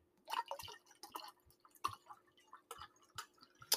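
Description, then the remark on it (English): Sherry pours from a bottle into a drinking glass in a quick run of gurgling, splashing glugs, fairly quiet, with no voices. “So anyway, um, the, the first step, of course, is to open your bottle of sherry and pour it into your drinking glass because we all love a good glass of sherry while we're in the kitchen.”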